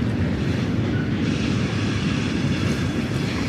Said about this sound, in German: Der Zug ist auch gleich vorbei.